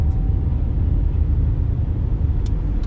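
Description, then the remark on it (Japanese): Steady low engine and road rumble from inside a moving van, a constant deep drone filling the cabin with no voices, and a faint brief high tick near the end. “前はね、こんな今みたいなこんなね、バンみたいな車はね、死んでも乗らないと。”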